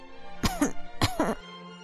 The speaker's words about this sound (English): … coughed for Mother.